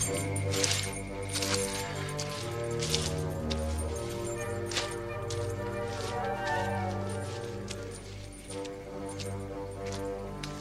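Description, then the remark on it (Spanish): A tense film-score cue, the villains' 'keys motif' used for the appearance of the scientists: sustained low orchestral tones under a steady pattern of metallic jangling and clinking, like keys being shaken, recurring throughout at a fairly even, moderate loudness. “Lo denominan el, motivo de las llaves, para definirlo. Eh, para sonorizar la, aparición de, los científicos.”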